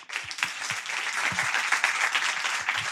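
An audience applauds steadily, a dense wash of many hands clapping at once with a few sharper individual claps standing out, sustained at an even, fairly loud level throughout.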